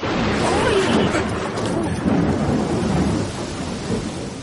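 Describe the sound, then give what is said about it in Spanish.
Steady heavy rain hisses at night while deep thunder rumbles and rolls through the whole stretch, swelling loud around the middle before easing slightly. “Continúan cabalgando, es de noche y está lloviendo. Los rayos asustan a Rocinante.”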